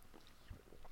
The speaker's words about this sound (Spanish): Pero vamos a empezar con el primero, no sin antes darle un traguito a mi café.